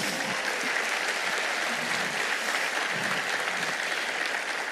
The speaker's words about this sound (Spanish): Dale fuerte ese aplauso a Jesús.